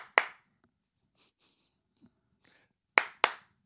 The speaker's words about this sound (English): That's right, I'm clapping.